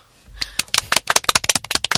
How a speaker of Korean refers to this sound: 뭐 박수 한 번 쳐.